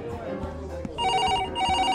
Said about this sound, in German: Die Party verstummt, als das Telefon klingelt.